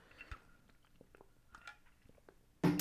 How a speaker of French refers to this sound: On va se prendre une petite gorgée d'eau.